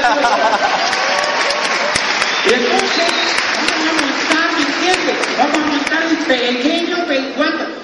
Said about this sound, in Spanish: Un aplauso para mi madre.